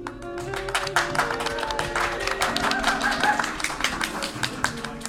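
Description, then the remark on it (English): A steady burst of audience applause for the host at the Shy Guy Express Murder Mystery Dinner Experience, many hands clapping in a dense, continuous patter for about five seconds, with a faint tonal hum underneath. “Hold for applause.”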